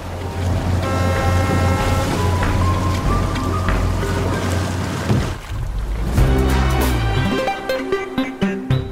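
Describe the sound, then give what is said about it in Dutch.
A crew transfer boat's engine drones steadily, low and loud, over splashing water and surf, with creaks and a shifting thud midway as the boat pushes against one of the pillars of an offshore platform so the crew can step across. “En dan duwt de boot tegen een van de pijlers van het platform.”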